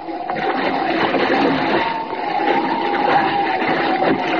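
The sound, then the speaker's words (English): A large ocean wave crashes over a small, half-swamped rowboat at sea at night and capsizes it, a loud, continuous roar of churning, rushing water that surges steadily for several seconds with no voices. “Oh, that wave capsized the rowboat.”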